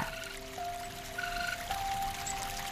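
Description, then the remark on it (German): Water splashes and trickles as a raccoon dips her front paws in from a boat drifting down a river, a steady, moderately quiet wet sloshing that runs the whole time, with a faint tonal hum underneath and no voices. “Lava hält ihre Vorderpfötchen ins Wasser, als ob sie sich die Hände waschen wollte.”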